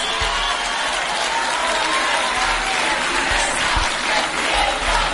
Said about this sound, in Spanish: Es un día muy triste porque cuando digo Ayuso, oigo aplausos. Oigo aplausos.